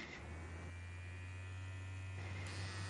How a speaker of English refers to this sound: Like, okay, for example, I brought a second one for comparison. You hear that thing? This is a normal trimmer.